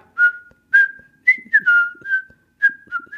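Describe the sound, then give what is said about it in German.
Someone whistles a catchy, familiar tune, a widely used song from the YouTube library, as a bouncy series of short and sustained notes with small pitch leaps, slightly breathy and not perfectly steady. “Ja, ich kann es nicht so gut pfeifen.”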